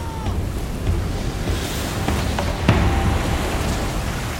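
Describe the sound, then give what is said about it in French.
Rough sea surges and churns around a storm-tossed boat that is taking on water, with foaming white water breaking all around. A steady, loud roar of water with a few sharper slaps and splashes, and no voices. “Le bateau se souleva et fut projeté dans un chaos d'eau bouillonnante, tourbillonnant comme un bouchon dans l'écume blanche qui se brisait autour de nous”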